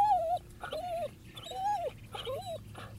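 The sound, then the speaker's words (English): A dog reacting to another dog lets out four whiny, arching whimpers in quick succession, with a low, steady growl rumbling underneath throughout. No one speaks. “It's another dog. It's okay.”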